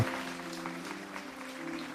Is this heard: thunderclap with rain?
no